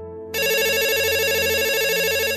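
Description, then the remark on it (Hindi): A telephone rings as a daughter calls her father, with a bright, warbling electronic ringtone that cuts in abruptly after a brief low hum and carries on loud and steady to the end, with no voices. “शुभी ने पापा को फोन किया”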